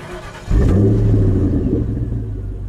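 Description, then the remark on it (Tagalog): A car in a garage: its engine cranks and catches about half a second in, revving up loudly before settling into a steady rumbling idle that slowly eases off. “Mabilis na pumunta sa garahe si Elmer at binuksan ang kotse.”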